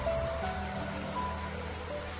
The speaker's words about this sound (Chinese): 淅淅沥沥的雨声吞没了所有的一切，只留下他的叹息声和我的奔驰声。